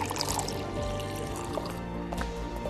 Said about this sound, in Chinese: 民警似乎忙完了， 看着面前坐着的两个人， 我给你们倒杯水吧。